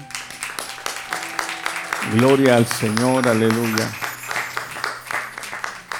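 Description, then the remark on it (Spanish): A church audience applauds at a morning service with dense, steady clapping throughout, while a man's voice rises loudly over it midway, calling out in praise before the clapping carries on. “El un fuerte aplauso, Señor.”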